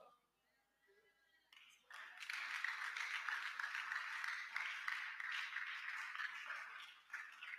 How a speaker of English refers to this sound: I see those clapping their hands. I see the Lord blessing them.